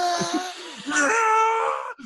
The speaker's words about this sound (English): I think I'm going to say my official pick is Broken Arrow because it gives us the it's his performance is fine it's okay but that movie gives us the legendary howie long scream